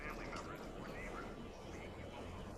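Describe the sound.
A public address announcement sounds from outside, a muffled amplified voice whose words can't be made out, running steadily throughout at low volume.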